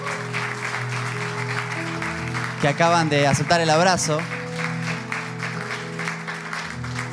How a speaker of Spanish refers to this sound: Y este aplauso se lo damos a todas aquellas personas